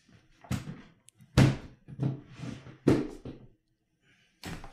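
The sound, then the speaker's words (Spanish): A Pelican hard plastic equipment case, holding tripods and cameras, is lifted and handled, with four heavy, irregularly spaced thuds and clunks, plus scraping and rattling between them. “Voy, a, partir levantando la Pelican para que vean el tamaño que tiene, porque es más fácil ver la relación.”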